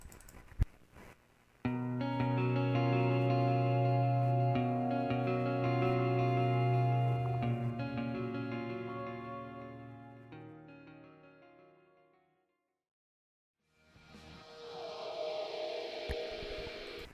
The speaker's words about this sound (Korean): 네, 이 노래 오랜만에 들으니까 참 웅장하네요. 네. 이거 들으면 되게 새내기 때 생각났지 않아요?